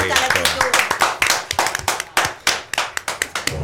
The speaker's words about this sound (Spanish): por qué no aplaudimos sí, hay que aplaudir